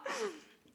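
A single quick kissing smack made close to the microphone, a short breathy, squeaky burst that fades out within a fraction of a second, with no talking.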